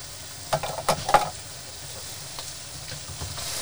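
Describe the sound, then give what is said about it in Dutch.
Freshly cut tomatoes drop into a hot pan with a burst of loud sizzling and a few sharp crackles, then settle into a steady, softer hiss of frying. “Oké, de tomaatjes gaan erin. Vers gesneden tomaatjes.”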